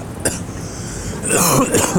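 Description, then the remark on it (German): A short, sharp cough burst, then a longer stretch of rough, phlegmy coughing, fairly loud, with no talking. “Aber Räuspern ist das ja gar nicht, das ist ja eher so Brockenhusten, ne?”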